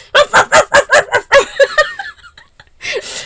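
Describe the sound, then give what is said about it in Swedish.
A voice imitates a dog barking loudly, firing off a rapid string of about ten clipped barks, trailing off into a pause and a breathy burst at the end. “Sen kommer hunden och bara”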